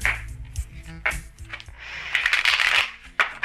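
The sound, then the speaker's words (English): A deck of cards being shuffled before the next card is drawn in a card reading, with quick papery flutters and soft riffling bursts that build into a dense, crisp cascade before a final tap. “Someone out there needs to hear what this next card is about to reveal.”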